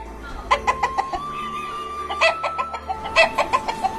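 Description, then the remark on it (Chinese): A rooster calls out in three quick clusters of short, sharp, mid-pitched clucking bursts, loud and rhythmic, with a faint steady tone underneath and no talking. “狗爱睡懒觉，因此每次都是公鸡去叫醒它。”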